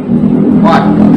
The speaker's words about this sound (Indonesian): suara motor ada mohon maaf suara motor suara-suara motor yang sedikit bocor maklum ya namanya juga anak kota jadi banyak suara-suara motor